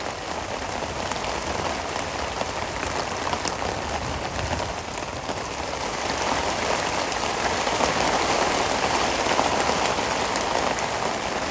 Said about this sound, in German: Ah, jetzt regnet sich noch ein bisschen mehr ein hier.